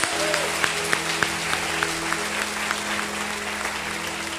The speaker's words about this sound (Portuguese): Aplaude, ele aplaude em nome de Jesus.